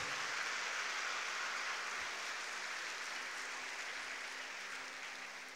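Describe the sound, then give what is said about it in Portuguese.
An audience claps in sustained applause, a dense, steady wash of many hands that holds strong throughout and eases slightly toward the end, with no voices standing out. “Se você crê, aplauda com força aquele que vive e reina para sempre.”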